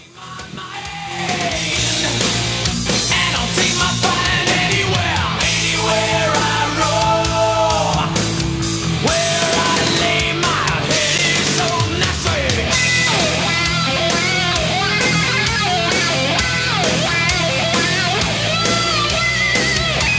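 A loud electric guitar solo with wah-wah pedal, bending and sweeping notes over a full band backing that plays steadily for about twenty seconds, with no talking.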